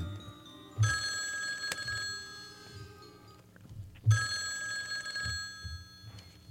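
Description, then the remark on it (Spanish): A telephone rings twice on an outgoing call made from a home phone, each burst a bright trilling ringback tone lasting about a second and a half, separated by a pause; no voices. “ella entró rápidamente a su casa, directo al teléfono, a tratar de saber algo de su hijo. Hizo una llamada.”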